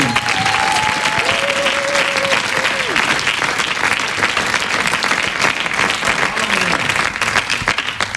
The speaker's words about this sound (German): Freddy und Franco Knie, bitte mit einem großen Applaus auf die Bühne.